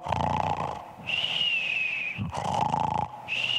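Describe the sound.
A voice mimics someone snoring: loud rasping snorts alternate with high whistling exhales, repeating about twice in a steady rhythm, with no words spoken.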